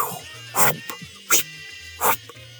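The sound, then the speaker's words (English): Three sharp, airy swishes, evenly spaced, like hair weaves being flipped by girls, apparently imitated by a voice, with a faint low buzz between them. “this and these were sounds from their weaves.”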